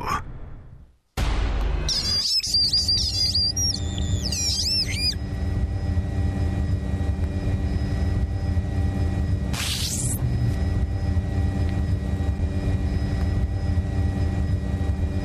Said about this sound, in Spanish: Estamos escuchando, parecía como, por un momento parecía como eh, Arturito, ¿no? De la Guerra de las Galaxias. Em, pero no, es un dron